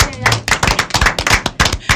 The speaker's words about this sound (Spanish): Sí, señor, un aplauso.